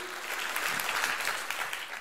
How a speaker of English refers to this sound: And if you believe that, give Jesus a great uh, hand clap of praise. Would you do that?